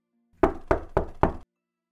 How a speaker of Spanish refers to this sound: Se inclina en busca de una posición cómoda y, mientras Han le pasa los brazos por el cuello, unos golpes sacuden la puerta del cobertizo.